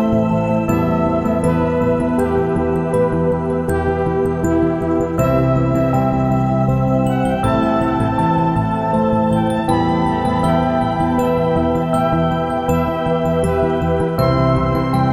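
Instrumental sci-fi futuristic electronic space ambient music: sustained synthesizer pads, electric piano tones and bright plucked synth notes with soundscapes, playing continuously at an even, full volume with no voices.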